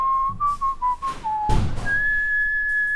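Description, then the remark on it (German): A person whistles a short melody by Johann Sebastian Bach while closing a window, clear pitched notes stepping downward, then a breathy pause and one long sustained higher note. No one speaks. “Ich, ich pfeife Johann Sebastian Bach rüber”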